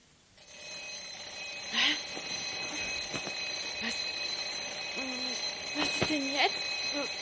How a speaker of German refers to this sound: Wecker los? Spinne ich? Drei Uhr? Das gibt's doch überhaupt nicht. Wieso klingelt denn der jetzt?